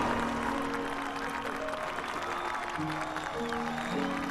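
audience applause

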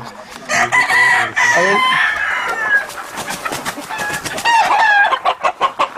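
hens clucking

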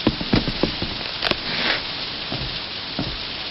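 storm rain

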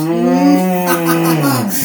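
cow mooing

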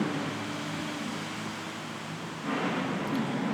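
cars passing by outside

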